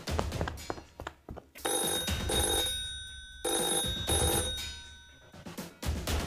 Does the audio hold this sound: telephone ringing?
yes